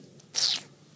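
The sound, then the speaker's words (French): A single hissy tchip, the disapproving teeth-sucking sound made with the lips, saliva and tongue, lasting about a quarter second against an otherwise quiet background. “C'est un bruit de succion qu'on fait avec les lèvres, la salive et la langue.”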